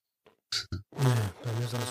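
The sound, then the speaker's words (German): A loud fart sound: a few short sputtering bursts, then a long buzzy, droning blast that dips briefly and continues. No one speaks. “Ich weiß nicht, jemand furzt.”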